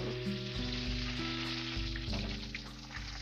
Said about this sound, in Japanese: 換気扇うるさいかな